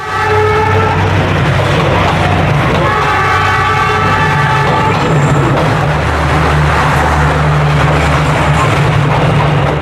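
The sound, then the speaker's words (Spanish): A train rumbles past along a narrow city street, Train Street in Hanoi, a loud, steady grinding roar with a low engine drone, broken by long blaring horn blasts near the start and again a few seconds later. “Estamos en una estrecha calle por la que pasan varias veces al día los trenes que recorren la ciudad. Ya lo están escuchando.”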